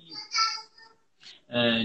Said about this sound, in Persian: ببخشید این صدای بچه ها میاد دیگه